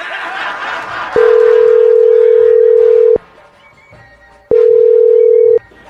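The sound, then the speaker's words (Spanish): A loud, steady telephone tone sounds twice while a call is placed, a long two-second burst then a shorter one, after a moment of murmured background noise and faint laughter. “Ya dile que ya llegas con el viejito que ya le entregaste las monedas. Márcale, amor.”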